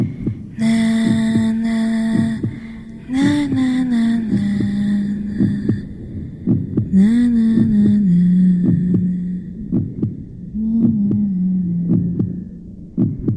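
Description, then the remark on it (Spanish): A muffled heartbeat thumps steadily as if heard from inside the womb, its rhythmic pulses set against a sustained, wavering tonal hum that rises and falls in long phrases. “Es un eco cardíaco de nuestros primeros latidos grabados y almacenados como material arqueológico sonoro.”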